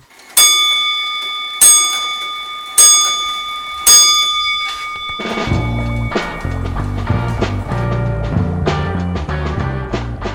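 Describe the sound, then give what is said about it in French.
Four bright, bell-like radio time signal tones strike at an even pace about a second apart, each ringing briefly. Then a rhythmic music bed begins, opening the journal de la création sonore of the radio programme Récréation Sonore. No one speaks. “Au quatrième top, il sera temps d'écouter le journal de la création sonore.”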